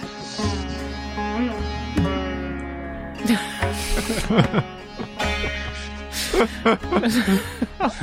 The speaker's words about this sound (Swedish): Det man kan höra här är diverse barn som går förbi till lekpark, havet som brusar, ett och annat flygplan och någon fiskmås.